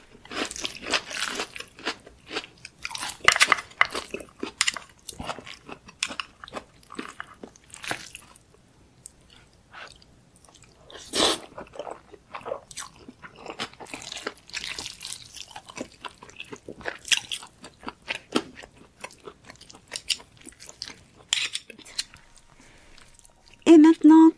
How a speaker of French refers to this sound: Attention à vos oreilles, voilà ce que ça donne quand on écoute quelqu'un en manger. ASMR, c'est parti.